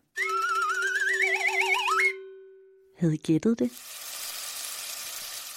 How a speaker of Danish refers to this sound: Noget, man bruger til at lave mad med. Det her er nemlig lyden af noget mad, der bliver stegt.